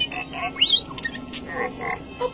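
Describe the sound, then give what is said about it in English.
The Star Wars droid R2-D2 (Artoo) chatters in rapid electronic beeps and warbling whistles: a quick string of high, chirpy tones with a rising swoop near the start, and no voices. “Don't get technical with me, you funny little twerp.”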